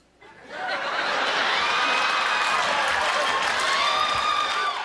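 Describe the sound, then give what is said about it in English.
A crowd bursts into raucous applause for comedian Mac as he leaves the stage after a six-minute stand-up set in New York: dense clapping mixed with cheers, whoops and laughter that swells after a quiet start and stays loud and sustained throughout. “He turned in six minutes of pure brilliance, leaving to raucous applause and never really looked back from there.”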